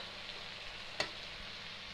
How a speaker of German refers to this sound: So, jetzt rühre ich einfach schön das nur unter das Ei. Lass das Ganze noch so ein bisschen nachbrutzeln.